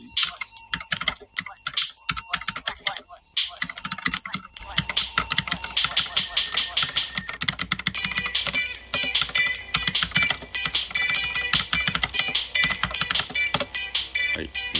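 Rapid keyboard typing, clear, a steady patter of key clicks that starts sparse and grows into a dense, continuous clatter over some faint background sound, as a comment is typed.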